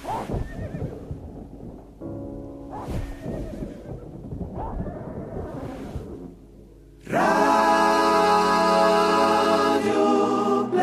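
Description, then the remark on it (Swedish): A horse neighs repeatedly: short harmonic whinnies amid rough, noisy snorting bursts, then one long, loud, shrill neigh that fills the final four seconds. No one speaks. “Jag måste gå ut och slå hästen!”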